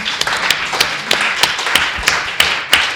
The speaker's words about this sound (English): Let's give a round of applause to the panel.